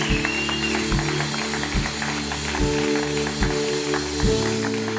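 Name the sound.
audience applause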